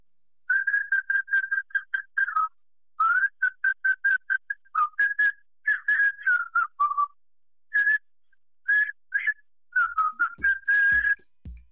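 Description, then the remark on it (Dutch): A person whistles a lively, warbling tune on a voicemail message, in quick rapid bursts and short phrases, clear, with a few low thumps near the end and no talking. “Leuk gefluit.”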